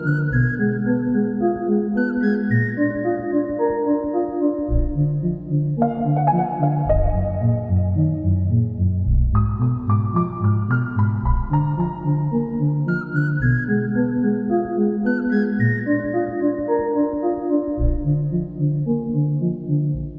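An instrumental song plays steadily and up close, with layered sustained tones, a deep bass line and a bright melody that shifts between sections, with no voices.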